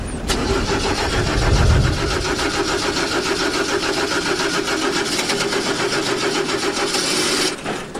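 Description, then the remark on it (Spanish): A car engine cranks steadily for several seconds with a rapid, rhythmic grinding but never catches, then cuts off abruptly, the car stranded in the middle of nowhere; loud, with no voices. “O sea, ¿me va a dejar el coche tirado aquí en medio de la nada?”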